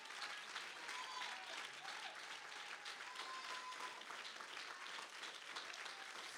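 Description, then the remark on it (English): Steady audience applause for the men in the room who influence their children fills the whole stretch, a dense wash of many hands clapping at an even, sustained level with no voices breaking through. “in this hour, we better applaud the men in this room that are influencing their children.”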